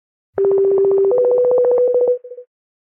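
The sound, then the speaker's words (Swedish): An outgoing phone call tone rings out clearly on its own: a steady electronic tone that steps up in pitch for about two seconds, then ends with a few quick short beeps. “Vi ringer henne.”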